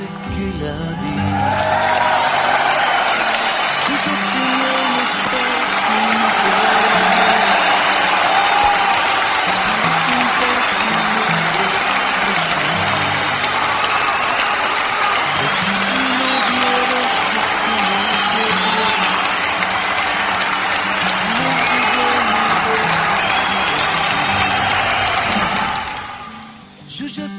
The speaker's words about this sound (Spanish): Pues este aplauso, este aplauso grande y largo para todas mis compañeras de, estación, a todas mis compañeras locutoras.